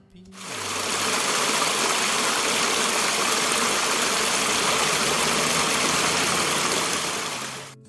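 A babbling river stream in a park, recorded with a unidirectional microphone on a Sony α7 IV camera, rushes steadily for several seconds, a dense, even wash of water noise that fades in and out at the edges, with a faint low hum underneath.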